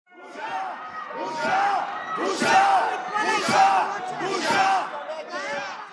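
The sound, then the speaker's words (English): Lawmakers in the Parliament building chant "Shame, shame" in unison during a vote on a measure to weaken the Supreme Court's power, a loud two-beat cry repeating steadily about once a second in a reverberant hall, with shouting and crowd noise underneath. “Yesterday, the dissent happened in the Parliament building, and you can hear lawmakers chanting, Shame, shame, during the vote.”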